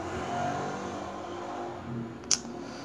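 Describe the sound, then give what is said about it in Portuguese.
A motorcycle engine revs, a steady, loud rumble with a whining drone that rises and swells slightly, then a brief sharp click near the end. “Moto filha da puta.”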